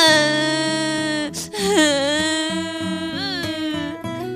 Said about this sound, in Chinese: 小猪胖胖大哭大闹。